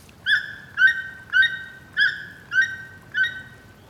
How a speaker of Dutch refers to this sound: En voordat ik er dieper over na kon denken, kwam er weer een dier. Naast me, in de boom, ritselde in de bladeren. Het bleek een toekant te zijn.